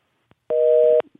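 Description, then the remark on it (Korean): A steady telephone busy tone after a call to a radio show listener was cut off sounds for about half a second, an even two-pitch electronic hum that starts and stops abruptly, with a few faint clicks around it and no talking. “청취자의 홍군형을 내면서 왜 끊었냐고 다시 한번 가겠습니다”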